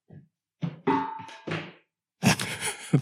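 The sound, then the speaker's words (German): A tossed coin lands with a series of bright metallic bounces and a short ringing tone, then a loud rattling clatter like a pinball machine. “Ich weiß nicht, ob es bei euch auch so sehr nach äh, Flipper-Automat klang wie hier, aber stimmt.”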